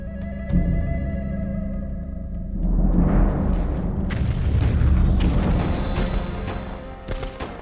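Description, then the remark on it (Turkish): Battle gunfire as Bediüzzaman fires rifles continuously at the enemy while four men keep reloading the guns: several sharp shots and heavy booms break over a continuous low rumbling roar that swells midway and stays loud, with scattered crackling bursts and no voices. “Dört kişi sürekli silahları doldurmakta, Bediüzzaman da düşmana ateş yağdırmaktadır.”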